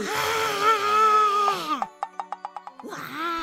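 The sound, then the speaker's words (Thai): A voice lets out a long, loud, drawn-out roar in imitation of a giant opening its mouth wide and roaring as loudly as it can to frighten children, followed by a quick run of short staccato vocal bursts and then another brief roaring cry. “ใหญ่ได้คิดที่จะทำให้พวกเด็กๆ นั้นกลัวอีกจึงได้อ้าปากกว้างและคำรามให้ดังที่สุดเท่าที่จะทำได้”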